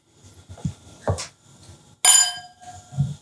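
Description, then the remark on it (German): A single bright clink of two wine glasses touching in a toast, its clear tone ringing on for about half a second, preceded by quieter knocks and glass handling sounds. “Paul versucht, zwei Weingläser zu befüllen”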